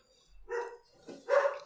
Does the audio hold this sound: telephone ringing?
no